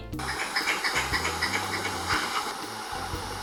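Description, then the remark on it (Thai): A squirrel's territorial warning call, defending its own area and warning others to stay away: a steady run of harsh, rhythmic chattering pulses over a constant hissy background, fairly loud and continuous, with no one speaking. “นั่นเป็นเสียงที่แสดงถึงการปกป้องพื้นที่ของตัวเอง เป็นการขู่ตัวอื่นว่าอย่าเข้ามานะ ให้ถอยออกไป ลบไป แถวนี้เป็นที่ของฉันแต่ขอบอกไว้ก่อนนะคะว่าไม่ใช่กระรอกทุกสายพันธุ์จะร้องเสียงแบบนี้นะคะ”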